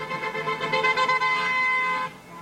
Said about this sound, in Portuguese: A festa já começou no Vale do Aço. Em Nova Lima, a noite foi de carreata, com congestionamento e buzinaço.